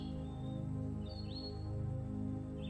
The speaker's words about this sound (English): hearing the sounds of the songbirds in the air above, and feeling yourself relaxing more and more. As you close your eyes for a moment and just enjoy the sounds of spring.